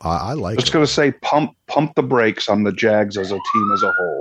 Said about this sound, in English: As I'm about to get pulled over Uh-oh. by LAPD. Uh-oh. oh, my. It's a sound of the police.